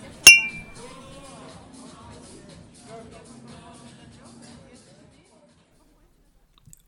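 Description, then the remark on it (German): Glasses clink once in a New Year's toast, a sharp bright chime near the start with a ringing tone that fades, followed by soft, indistinct voices and faint movement before falling silent. “Darauf stoßen wir an. Prost Neujahr!”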